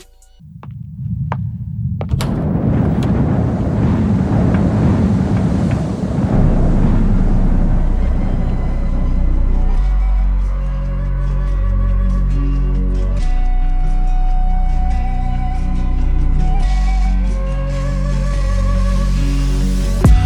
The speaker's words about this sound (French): on s'écoute une chanson d'amour un peu triste, euh, …